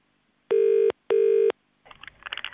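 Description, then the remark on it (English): A telephone ringback tone sounds twice in quick succession, a steady, clear electronic double ring, followed by a short burst of faint rustling noise as the line picks up. It is a call to a school to surprise a pupil who won a competition. “we called you up and surprised you at school. So here's how we got him. Okay, it's ringing.”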